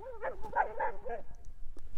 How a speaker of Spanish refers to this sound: Ay, estos perros, que sabe qué están haciendo, perdón. Es que estoy. Saqué a pasear a mis perros y andan aquí jugando.